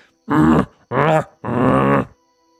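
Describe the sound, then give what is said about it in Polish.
A human voice mimics a bear's growl in three drawn-out, throaty bursts with short gaps between them, loud, with no other sounds around it. “Chyba słyszę jakiegoś misia.”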